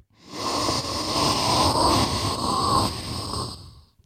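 A person takes a long, deep sniff through the nose of a Baker Mayfield candle, a steady breathy inhalation lasting several seconds with no talking.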